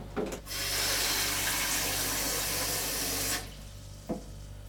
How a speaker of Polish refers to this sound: Do małego garnuszka nalewamy wody.